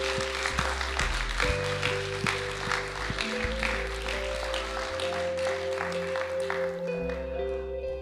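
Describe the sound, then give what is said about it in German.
Sustained audience applause in a church after a prayer, a dense crackle of many hands clapping at steady loudness for the full stretch, with low sustained organ-like tones humming underneath. “Vielen, vielen Dank und herzlichen Applaus”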